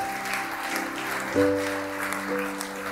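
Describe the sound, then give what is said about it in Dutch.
An audience applauds warmly and steadily throughout, a dense wash of clapping, while a sustained keyboard chord enters partway through and hums beneath the applause. “Geef ze ons een warm applaus, mensen.”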